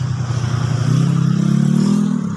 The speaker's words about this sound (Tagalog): Ayan, pasensya na may mga dumadaan na mga motor.